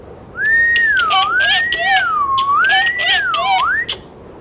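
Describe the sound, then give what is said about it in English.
A person whistles a wavering, sliding tune that rises and falls in a steady rhythm for about four seconds, with sharp clicks and squeaky screeches mixed in, fairly loud, made to distract or scare a leopard seal. “Quickly, choose which sound you want to make a whistle, a click, or a screech, and let's do it together and see if we can distract or scare that leopard seal.”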